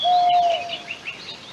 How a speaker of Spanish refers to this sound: La noche es oscura, triste y lejana. Entre las ramas se ven a los ruiseñores vigilando la madrugada.